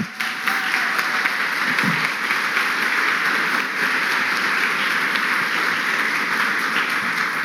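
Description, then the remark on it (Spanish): An audience applauds the Lord during a Christian sermon, a dense, even wash of many hands clapping that holds at the same loud level for the whole stretch, with no voices standing out above it. “Démosle ese aplauso al Señor nuevamente.”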